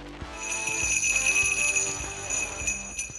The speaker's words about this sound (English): So I went down to this uh, local store, this local music shop, and I bought I bought some jingle bells.